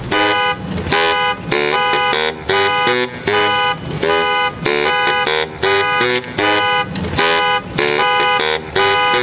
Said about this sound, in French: Alors là, fais gaffe, il y a un mec qui va braquer une bagnole et l'alarme va se déclencher.